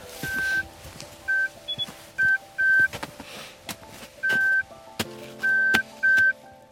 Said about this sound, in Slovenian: Ko dobimo prvi signal, pa začnemo slediti žovni, nas usmerja s pomočjo puščic in s pomočjo piskanja.